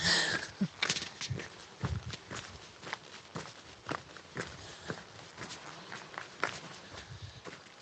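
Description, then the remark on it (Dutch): Steady footsteps crunch along a gravelly hiking trail, falling in an even walking rhythm of roughly two steps per second with faint outdoor ambience underneath. “Nou, ik ga me even focussen op mijn laatste stappen.”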